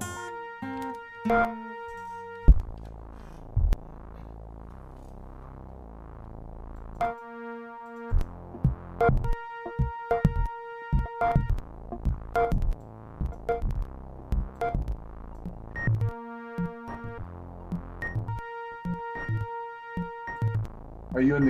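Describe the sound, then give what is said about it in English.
An analog synthesizer jam on a 404 Synthesizer TQ4, in the key of F, with sustained, buzzy chords and pulsing bass, some notes clashing dissonantly, punctuated by sharp percussive hits and brief pauses between phrases. “man talks and jams with The creator of 404 Synthesizer TQ4 making electronic music”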